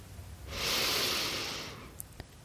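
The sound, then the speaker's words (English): A single slow, airy breath taken with a meditation mantra swells gently and fades over about a second, soft, with no talking; a couple of faint clicks follow in the quiet. “And just breathe with it.”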